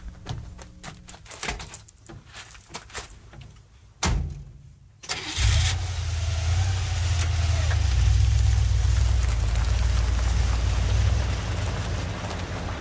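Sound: car engine starting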